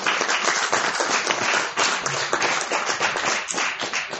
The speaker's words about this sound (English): Give them a round of applause.